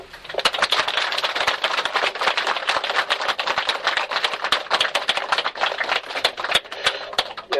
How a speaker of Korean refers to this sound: 야 그만하시고 요 박수 한 번 칩시다.